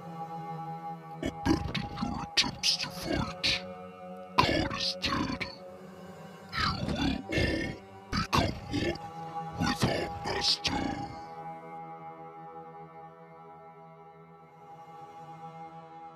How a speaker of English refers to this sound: I can hear a snarling sound getting louder.